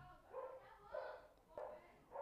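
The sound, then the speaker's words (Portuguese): A female dog barks four times in a loose, uneven series, the barks high and slightly whiny, with no talking over them. “Hoje tu corta é. da cachorra.”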